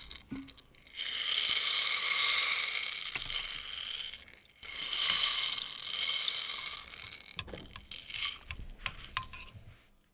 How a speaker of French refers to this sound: C'est un bâton de pluie, je crois. Il fait le bruit de l'eau.